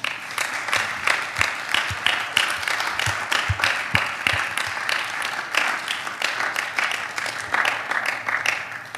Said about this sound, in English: So, hey, why don't we give these guys a round of applause?